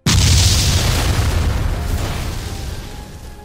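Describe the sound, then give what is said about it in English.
A single thunderous explosion of light, set off by a glowing tear hitting the ground, booms out with a sudden sharp onset, its deep low rumble rolling and slowly fading over a few seconds, loud with no voices. “It rolled over my foot until it hit the ground, causing an explosion of light with a thunderous sound.”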